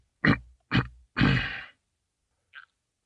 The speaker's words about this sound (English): He had cleared his throat. That was him clearing his throat, not me.